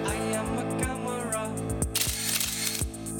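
A remote-controlled sewer inspection camera in Westerkwartier, steered through the sewer by an operator further along the street, runs with a steady motorized hum and a regular series of mechanical clicks, plus a brief rushing, hissy stretch midway. It's fairly loud, with no talking.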